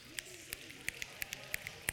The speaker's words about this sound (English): Can you snap your fingers?